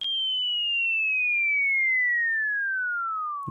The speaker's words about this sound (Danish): Og den der bombelyd, jeg taler om, det er den der, som du godt kender fra tegnefilm, når øh, at den lander, så siger sådan, jeg tror, jeg har fundet en video, der kan fortælle det lidt bedre her.